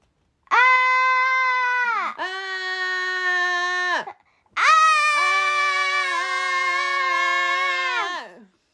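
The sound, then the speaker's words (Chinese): Loud, sustained screams from two voices, the characters Bear and Duck in a forest at night, in three long bursts, high-pitched and strained with strong harmonics, the last scream rising in pitch before cutting off. “不然为什么大叫啊？我为什么也要跟着你大叫啊？”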